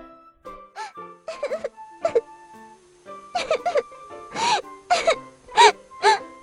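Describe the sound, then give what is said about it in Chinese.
A girl crying in a series of short, high-pitched sobbing bursts with wavering pitch. The sobs come in uneven clusters and grow louder and more insistent toward the end, with no talking. “咦，是谁一大早就哭呢？卷卷顺着哭声望过去，看到了隔壁王伯伯家的窗口，牙刷妹妹正在流眼泪呢。”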